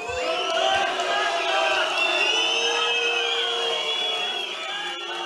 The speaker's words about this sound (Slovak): Tí, ktorí naopak prišli hulákať do Michaloviec na debatu Gabriely Kajtárovej, sa museli zorganizovať a prekrikovať všetkých, len aby ich bolo počuť